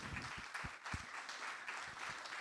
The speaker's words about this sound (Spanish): Bueno, aplaudámosle a Él, pues